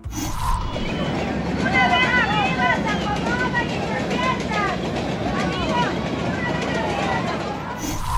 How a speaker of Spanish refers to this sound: Estos son los sonidos de los migrantes a la hora de subirse a los trenes de carga para tratar de llegar al norte de nuestro país e intentar cruzar a Estados Unidos. Estos trenes son conocidos como la bestia.